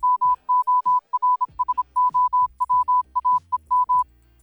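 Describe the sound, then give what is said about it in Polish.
Morse code beeps spelling the Polish phrase "morsowałem morsem": a single steady mid-pitched tone keyed on and off in a brisk pattern of long and short pulses, clear, with no voices, for about four seconds. “ja wam powiem, jak można powiedzieć morsowałem morsem.”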